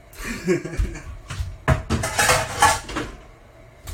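Dishes clatter and clink in a run of sharp, uneven knocks, with a few louder bangs and a soft wash of running water beneath, as pots and plates are washed.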